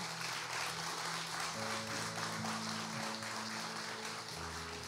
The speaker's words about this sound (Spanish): Vamos a dar un fuerte aplauso a los líderes de nuestra iglesia.